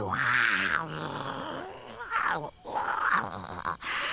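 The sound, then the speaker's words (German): A voice imitates a tiger roaring at a crowd of people, producing a few loud, drawn-out growling roars in close succession, raspy. “Wie lange ich das schon einmal tun wollte. Diese elende Bande anbrüllen.”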